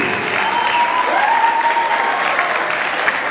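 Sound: audience applause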